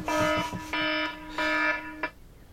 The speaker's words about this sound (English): Sorry. it's such an unpleasant ringtone. That would absolutely upset me. I, mean, I hate phone calls at the best of times. I've got this kind of science fiction ringtone, and it's kind of annoying anyway. It's quite high pitched.